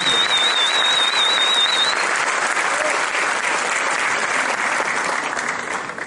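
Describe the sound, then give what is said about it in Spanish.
Loud, sustained applause from an audience for children, a dense wash of clapping that holds steady for several seconds before easing slightly, with a thin whistle rising over it early on. “Démosles un aplauso apoteósico a estos niños.”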